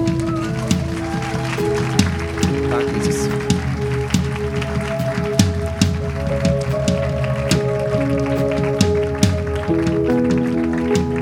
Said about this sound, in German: Ein Applaus für Jesus.